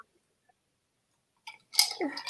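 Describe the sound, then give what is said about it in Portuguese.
After a stretch of silence, a quick sip from a drink with a small slurp and wet mouth sounds, followed by a soft swallow and a brief murmur. “Até tem que tomar um golinho aí para.”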